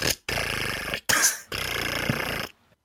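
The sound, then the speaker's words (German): A voice imitates the whirring return of a rotary phone dial: a few raspy, buzzing bursts with brief gaps, fairly loud, fading into silence at the end. “ich glaube, in der ersten Folge, die wir gemeinsam besprochen haben, kam diese Referenz mit der Wählscheibe und dem Telefon eigentlich auch genau so vor.”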